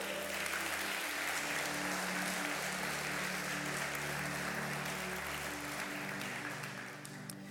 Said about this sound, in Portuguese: Quantos recebem isso aqui nessa manhã e podem aplaudir a Jesus?